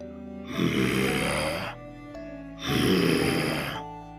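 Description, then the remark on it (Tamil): A voice imitates the growl of an approaching lion with two rough, rumbling bursts of about a second each, separated by a short pause. The growls are fairly loud, with no speech alongside. “அப்படின்னு ஒரு சிங்கம் வர சத்தம் கேட்டுடுச்சு அடடா இப்படி குகைக்கு வெளியே நம்ம குட்டிகள் எல்லாம் தனியா இருக்கே சிங்கம் வேற பக்கத்துல வந்துகிட்டு இருக்கு”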